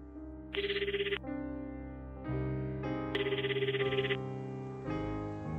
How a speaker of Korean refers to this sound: 유경이 집에 전화를 걸었다.